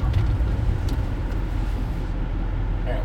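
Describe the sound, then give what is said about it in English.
A truck engine rumbles steadily, a low, continuous drone with slight fluctuations as the driver slowly maneuvers the truck into a parking spot. “Sorry, I'm going to try to fit my truck into this spot here.”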